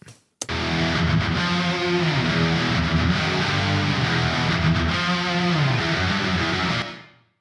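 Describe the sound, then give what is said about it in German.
Six layered, distorted electric guitars play sustained chords together through a short reverb for about seven seconds, loud and steady, with a short reverb tail as it stops. “Und jetzt laufen alle sechs Gitarren quasi auf unseren Kreuzhall.”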